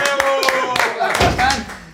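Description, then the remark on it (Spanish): Scattered applause with sharp, uneven claps that rise and fall over two seconds, mixed with voices and cheering from the crowd, welcoming a guest being introduced on a show. “¡Un aplauso!”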